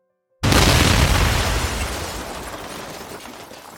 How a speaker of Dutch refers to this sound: Een enorme knal. Louis wordt weggeblazen tot tegen de muur aan de andere kant van de kamer.